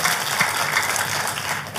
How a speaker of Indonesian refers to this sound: Tepuk tangan yang meriah buat Tuhan kita.